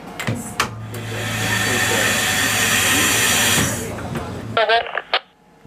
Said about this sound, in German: Und während sie einsteigen, zur Sicherheit nochmal eine Bremsprobe. Dann schauen wir den Wagen hin, dass der dann auch äh, mitbremst.